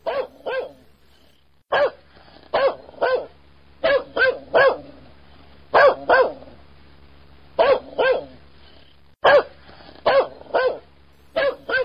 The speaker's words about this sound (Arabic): أحد أصدقائك شرى كلب شراه للحراسة حطه في البيت ولكن اكتشف أن الكلب ينبح بلا انقطاع من أول يوم لآخره